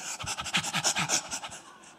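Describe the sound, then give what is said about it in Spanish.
A person imitates the rapid panting of a thirsty dog with its tongue hanging out: about ten quick, breathy huffs in a steady rhythm, fairly loud, with no talking. “Espera que esté como el perro que se le sale la lengua.”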